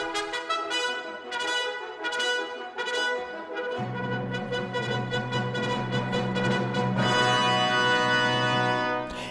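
Bright trumpets, with the other brass, blare the quick galloping fanfare of the March of the Swiss Soldiers from the overture to Gioacchino Rossini's opera William Tell, joined by fuller brass and a low sustained bass partway through, building into a loud, energetic march with no voices.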